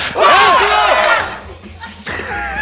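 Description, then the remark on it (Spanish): Several voices of a group of people on a stage shout together on a count of three in one loud, sustained group yell that wavers in pitch, fades after about a second and a half, then a quieter voice or murmur follows. “Tres y gritamos.”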